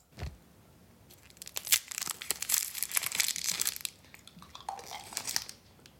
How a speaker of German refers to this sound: Ah, es ist ah du hast dein äh, Dextro Energien aufgemacht und in den Mund genommen. Bist du deppert? Oh gut, ein Schokobon. Ein Schokobon. Ein Schokobon, also wirklich gut.